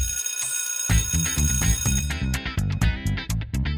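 A school bell rings loudly and close, its metallic clang sustained at first and then breaking into a rapid, rhythmic series of rings. No one speaks.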